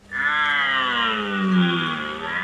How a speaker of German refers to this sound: Und wenn kein Hirsch rührt, hilft ein Knopfdruck.